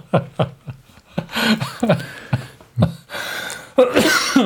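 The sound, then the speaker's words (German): A loud fit of coughing: a rapid string of harsh, breathy bursts, some short and sharp, others rougher and drawn out, with no speech around them. “Hust!”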